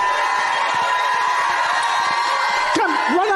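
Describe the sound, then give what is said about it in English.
A large audience shouts and cheers continuously in a dense, roaring wash of voices, with a few higher whoops rising out of the crowd near the end. “Come on, don't stop shouting.”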